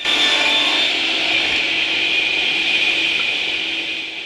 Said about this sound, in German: Im Hintergrund die Sägen und Bagger, das Knacken und Knirschen, wenn ein Baum umfällt oder ein Baumhaus heruntergerissen wird.